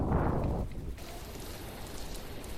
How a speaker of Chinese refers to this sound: 才刚说完，怎么又听到外面下雨的声音了？